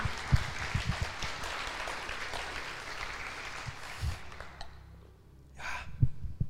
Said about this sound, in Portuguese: Aplauda o Senhor se você está aí, querido.